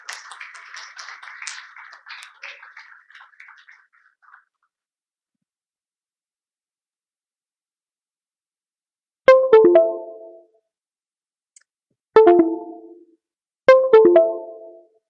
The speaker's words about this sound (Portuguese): Gostaria que vocês recebessem com uma grande salva de palmas Samuel e Péricles